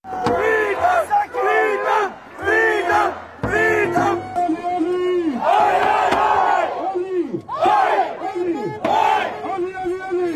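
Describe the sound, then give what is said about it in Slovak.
A large protest crowd in Australia chants in unison. The word 'freedom' is shouted alongside a typical Australian sports-style call-and-response chant. Repeated shouted phrases rise and fall in loud bursts, voices massed, continuing steadily throughout. “Ako budete počuť, slovo sloboda sa ozývalo popri typickom australskom športovom pokriku.”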